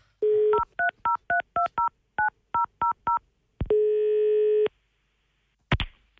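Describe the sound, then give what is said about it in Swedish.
A rapid sequence of about a dozen sharp, evenly spaced telephone keypad beeps as someone dials to call in sick at work, followed by a steady tone lasting about a second, then a brief click, heard clearly with no talking. “Det du glömde berätta om Kjell Sundvall är att han också jobbar på Kjell Company i Karlstad och så här lät det när han sjukanmälde sig på jobbet i 2013.”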